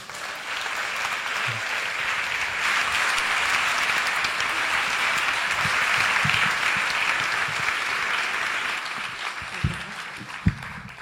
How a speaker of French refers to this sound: Donc merci d'applaudir très fort.